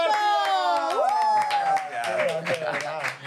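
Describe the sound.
Audience applause: a steady run of sharp hand claps under a loud, drawn-out vocal cheer that slides upward in pitch and holds, with more voices joining toward the end.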